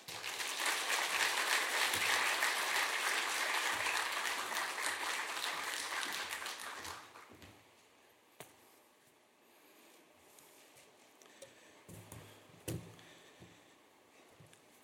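A crowd breaks into loud, dense applause that holds steady for about seven seconds, then stops abruptly, leaving near silence broken by a few faint thumps and knocks.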